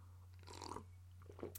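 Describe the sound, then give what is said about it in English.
A brief slurping sip of hot Earl Grey tea, followed by a second short mouth sound like a swallow, with a steady low electrical hum underneath and no talking. “I'm going to take a sip of my Earl Grey tea.”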